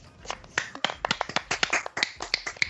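Quick, sharp hand claps come in a dense, slightly uneven burst, like a small group applauding a welcome. The claps are close and fairly loud, with no talking over them.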